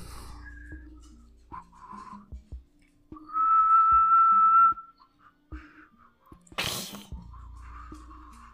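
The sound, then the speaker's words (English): A person whistles a long, steady, fairly loud note, mimicking a creature's call, preceded by brief chirpy whistles and followed by a sharp, breathy burst of noise. “Very much like a human whistling.”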